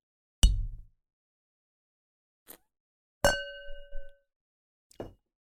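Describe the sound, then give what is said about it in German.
Glasses clinking together in a toast: a few sharp, bright knocks spread over several seconds, one ringing out clearly with a lingering tone, with no talking. “Da kann man schon mal anstoßen.”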